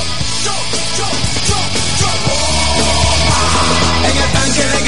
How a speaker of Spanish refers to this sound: Toque la bocina, tío. Eso. Más fuerte, más fuerte, por favor.